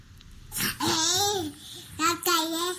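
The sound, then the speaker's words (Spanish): A baby girl babbles in two drawn-out, sing-song bursts with rising and falling pitch, fairly loud, separated by a brief pause, with no adult speech over it. “Les urge incluso salir y esta bebé se está haciendo viral porque le urge ir a la calle.”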